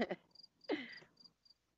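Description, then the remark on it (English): A cricket chirps in short, thin, high-pitched bursts repeating every few tenths of a second, fairly quiet, while a brief human vocal sound briefly rises over it. “damn cricket”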